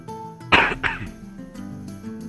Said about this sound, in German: Ich habe so ein bisschen Raucherhusten. Also. Vom Passivrauchen? Ja, voll.